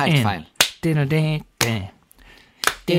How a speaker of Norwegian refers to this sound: Det er på en måte det at det er enklere å klappe på én og tre, men det er på en måte det dreper framgangen.